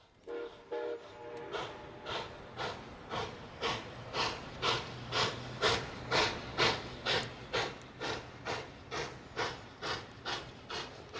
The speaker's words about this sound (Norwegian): Jeg føler at toget kommer til å kjøre på meg. Drømmetoget kommer.